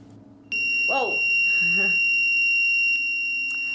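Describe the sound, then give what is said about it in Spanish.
A piercing, high-pitched electronic whine from a hard drive, starting as it is connected, cuts in suddenly and holds steady and loud, while a person speaks briefly beneath it. “Bueno, la cuestión es que cuando conectan este, este disco rígido empieza un ruido bastante, bastante molesto, como un pitido insoportable.”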